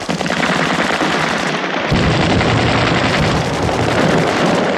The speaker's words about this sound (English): Okay, man, you hear the president. Lay down some cover and fire!